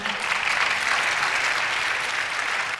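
A church audience breaks into steady, sustained applause honoring a volunteer's work during Vacation Bible School week, many hands clapping together at an even level for a few seconds.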